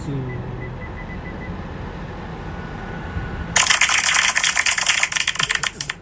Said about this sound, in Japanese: 拍手をしちゃったね まあまあということでそうということで。まあ、拍手をしちゃったんですけど、